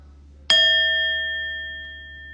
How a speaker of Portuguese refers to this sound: E daqui a pouquinho eu vou convidar o sino a soar novamente e a gente vai poder interromper esse período de prática formal. Mas, mesmo com o sino soando, não se mexe ainda.